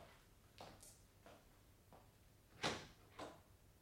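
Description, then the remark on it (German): A kitchen door being handled: a few soft scrapes and clunks, then a sharper knock-like thud and a final lighter bump, with no one talking. “Hm, das war die Küchentür.”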